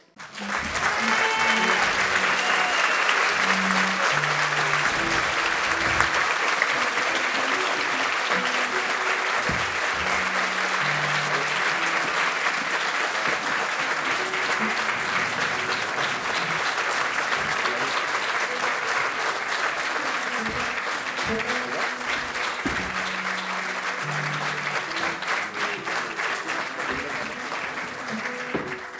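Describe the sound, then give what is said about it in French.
A large audience applauds a woman loudly and steadily for about half a minute, a dense roar of clapping with a few voices calling out underneath. “Donc il faut l'applaudir très fort.”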